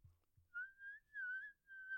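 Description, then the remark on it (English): A person whistles a steady, slightly wavering tone in three sustained bursts with short breaks, imitating an annoying whistling noise, like wind past a window, that appears when recording an XLR microphone through Audacity. A couple of soft low thumps come just before. “But when I record it through Audacity, there's like a weird like whistling sound like”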